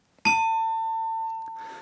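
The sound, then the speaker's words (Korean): A bright ding-dong-dang chime signalling a correct answer rings out once, loud, holding a clear sustained tone that fades only slightly, with a short burst of voice or noise creeping in near the end. “불, 불타는 딩동댕.”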